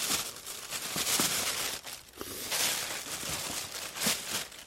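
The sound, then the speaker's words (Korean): Steady rustling and crinkling as a small MyMy portable cassette player and tapes are pulled out of a bag at a columbarium, with a few soft knocks of plastic mixed into the handling. “이거, 아버지 마이마이 카세트랑 테이프요.”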